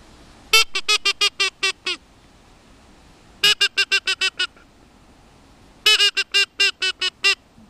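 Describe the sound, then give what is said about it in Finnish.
A duck call whistle blown in three loud bursts, each a rapid run of six or seven sharp, nasal quacks that fall slightly in pitch, separated by short pauses. “Kyllä, mä voisin tulla kurkkaan tota, jos mä olisin sorsa.”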